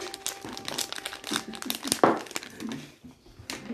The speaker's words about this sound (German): Ich mache gerade solche Schokodinger auf. sehen eigentlich relativ gut aus. Die kann ich mir voll lecker vorstellen. Sie sehen aus wie solche Windbeutel.